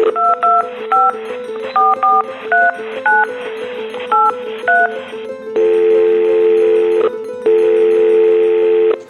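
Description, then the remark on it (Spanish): A phone number is dialed to call a teacher who is an audiologist: a quick run of about a dozen short two-tone keypad beeps in an uneven rhythm, followed by two long, steady ringback tones with a pause between them. “Papá, vea, antes de que se meta algo más, voy a llamar a la profe”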